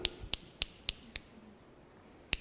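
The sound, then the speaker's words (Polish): A series of sharp finger snaps, five in quick steady succession, then a pause and one more snap, crisp with nothing else around them. “Wiemy o tym, że czasami byłoby łatwiej żyć z taką osobą, ponieważ można byłoby wiele rzeczy załatwić pstrykaniem.”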